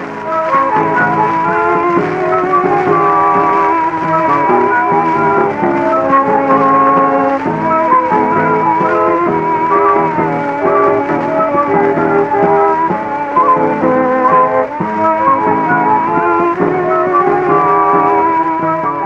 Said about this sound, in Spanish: Tenemos una grabación extraída de un disco de pasta de 1916